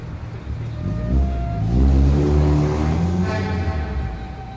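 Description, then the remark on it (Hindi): A car engine revs up loudly, its pitch climbing and holding as the car pulls away carrying a woman to the city hospital. The steady motor drone fills the scene with no voices. “नीरा ने गांव के कुछ लोगों की मदद से सेठानी को अपनी गाड़ी में लिटाया और सुनैना से कहा कि वो अपने पिता के साथ दूसरी गाड़ी लेकर सिटी हॉस्पिटल में आ जाए”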